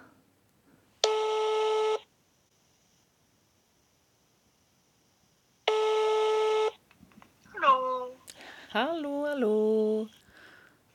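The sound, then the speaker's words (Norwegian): A telephone ringing tone sounds twice as a woman calls her mother, each steady buzzy ring lasting about a second with a long pause between, before a voice answers and a short exchange of talk begins. “ringer ikke ofte til moren sin, men i dag har hun lyst til det.”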